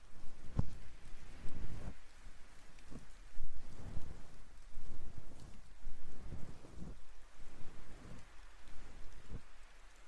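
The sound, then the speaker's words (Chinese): Steady rain pours down outside a small shop with a dense, hissing wash of noise, punctuated by occasional heavier drips and patters that rise and fall in loudness throughout, with no voices present. “没事的，反正下雨嘛，咱们小店也没什么生意就是了。”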